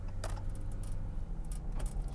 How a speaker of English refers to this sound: Sorry for the rattling, that's my license plate. I'm one of those people that put their license plate up on the fucking dashboard. Not, I don't have it actually mounted on the thing.